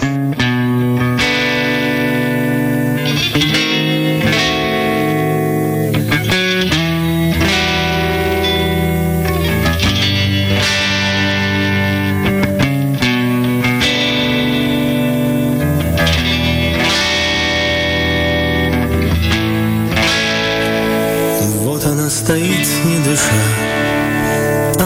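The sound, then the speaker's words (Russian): A song performed with a real string quartet, recorded in a studio: full, sustained chords shifting every second or so, layered with effects and reverb, steady and loud throughout with no talking. “Мы ее сыграли уже с скрипичным квартетом по-настоящему в студии.”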